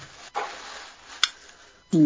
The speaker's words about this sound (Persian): صدای ظرف میاد